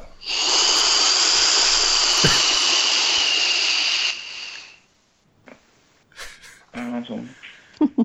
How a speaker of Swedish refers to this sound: dammsög lite. Härligt ljud att lyssna på.